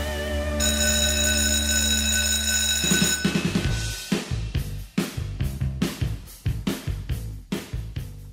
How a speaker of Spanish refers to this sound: Muy bien, suena el timbre eso significa que comienza una nueva clase aquí en la Academia de Emprendedores